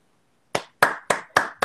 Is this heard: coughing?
no